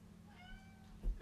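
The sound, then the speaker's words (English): A single drawn-out cat meow at the door, thin and fairly faint, rising and falling over about a second, followed by a soft low thump near the end. “this is the cat, you guys, at the door.”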